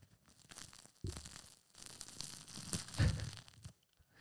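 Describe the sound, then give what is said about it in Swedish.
A crusty baguette is torn apart, a sharp crackling rip starting abruptly and continuing in dry, crunchy bursts that peak near the end, then stop. No one speaks. “Ni hör ljudet. Eh, det är superhärligt.”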